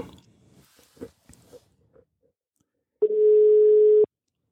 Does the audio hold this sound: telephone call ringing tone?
yes